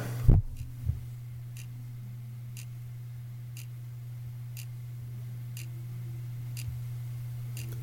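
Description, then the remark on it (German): An alarm clock on a bookshelf ticks softly and steadily about once per second, faint beneath a constant low electrical hum, after a couple of handling thumps at the start. “Ja, das ist ein Wecker und das habe ich ja schon mal zum Nachtzug nach Hamburg Thema gemacht.”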